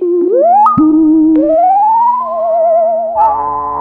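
A sci-fi sound effect of the TARDIS time machine singing: loud electronic tones glide upward and settle into a wavering, vibrato-like hum, with layered droning notes and no talking.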